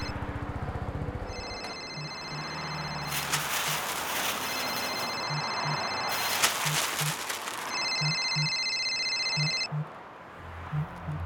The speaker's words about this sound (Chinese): 等等，你的手机在响？你用这么老派的铃声哦？ 最好是啦，怎么会有铃声？